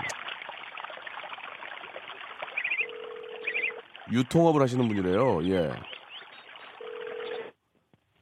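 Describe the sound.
A few quick dialing beeps, then a steady low ringing tone sounds twice through a hiss of line noise, with a man briefly talking between the rings, as a phone call is placed to a listener and does not connect.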